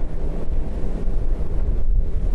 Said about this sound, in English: Uh, so you might ask, why am I doing this uh, podcast on this very noisy deck of a ship?